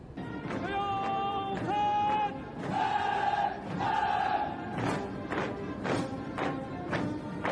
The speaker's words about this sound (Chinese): 一阵整齐的脚步声，伴随着雄壮有力的口号，缓缓的从我们背后传来。